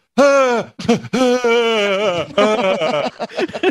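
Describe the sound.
A voice lets out a loud, drawn-out, strained groaning scream in a few ragged bursts, imitating a zombie's moan, with no other talking.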